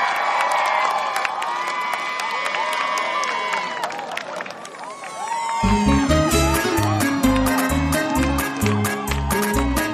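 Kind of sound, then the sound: crowd, audience applause and cheering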